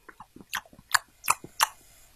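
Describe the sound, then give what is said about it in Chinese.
An old yellow ox chewing high-grade feed in its cowshed, with steady crunchy bites that come about three per second, four sharper crunches standing out among softer munching, with no voices. “耕完地后，便可以回到牛棚。那里早就有主人准备好的上等饲料。”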